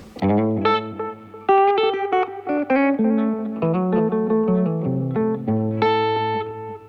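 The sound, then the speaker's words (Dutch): Electric guitar runs through a J-Rocket Alien Echo tape echo pedal, each plucked note trailing into overlapping repeats that smear into a thick, sustained wash. It's loud, with no one speaking. “is een eh, tape echo.”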